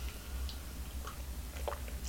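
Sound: sipping hot coffee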